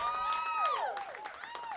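A crowd claps and cheers for performers seen earlier in the evening, with sharp scattered claps under rising and falling whoops and shouts from the audience, steady and moderately loud throughout.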